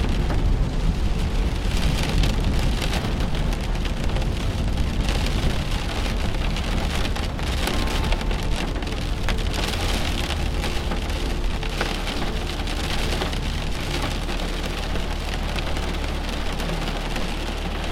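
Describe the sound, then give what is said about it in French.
Steady, dense rain pattering on a surface, with a low rumble of thunder rolling underneath throughout. No voices, just a continuous, even downpour. “Les oiseaux réfugiés dans les arbres, comme vous, à l'abri de la pluie et au cœur de l'orage.”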